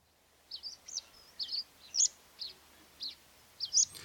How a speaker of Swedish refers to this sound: Berglärka. Berglärka, ja. Mycket berglärka i luften också.